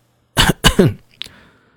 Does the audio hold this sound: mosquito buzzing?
no